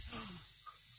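A tattoo machine hums with a faint, steady electric buzz that runs unbroken for about a second, with no voices present, as a tattooist from the tattoo studio Salong Betong tattoos a radio intern live on air.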